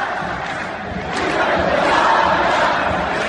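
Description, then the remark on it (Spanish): A huge stadium crowd chants the coach's nickname "Tuca" in unison on the night of Mexico's victory over Panama, a dense roar of massed voices rising and swelling steadily across a few seconds, loud and sustained with no single voice standing out. “el Tuca fue el nombre más coreado la noche de ayer cuando este ocurrió la victoria mexicana sobre Panamá.”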